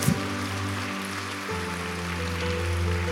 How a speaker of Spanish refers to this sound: Démosle un aplauso a ella, bien fuerte.